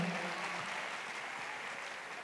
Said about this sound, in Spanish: Un aplauso más fuerte, por favor.